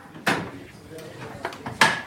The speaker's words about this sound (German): Das mache ich mit dem Fahrstraßenhebel. Ich lege den ein. Wenn das geht, ist der Fahrweg geprüft.